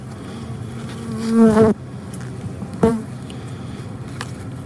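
Bees buzz in two passes, a louder rising drone around one to two seconds and a shorter buzz near three seconds, over a low steady hum with no voices.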